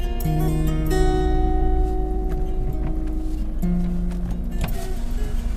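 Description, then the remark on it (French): Steady rumble of a car driving into the city of Antakya in Turkey's Hatay province, heard from inside, with a low engine drone and humming tones that shift slightly as it moves along. No one speaks. “Nous arrivons euh, en voiture dans Antakya.”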